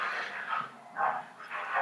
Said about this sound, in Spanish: Órale con los perros. Y lo peor es que se escuchan en el podcast